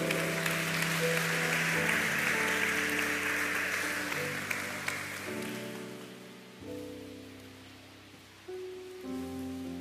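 A church audience applauds the Lord in a dense, steady wash of clapping that gradually fades out over about five seconds, while sustained keyboard chords keep playing underneath and continue after the applause ends.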